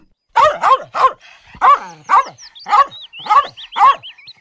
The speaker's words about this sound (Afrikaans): Sy roep en roep, maar Worsie is nêrens te vind nie toeskielik hoor sy 'n kwaai hond blaf onder 'n boom.